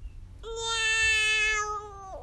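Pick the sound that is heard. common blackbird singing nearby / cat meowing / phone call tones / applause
cat meowing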